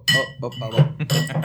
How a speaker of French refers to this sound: mais c'est le bruit de vaisselle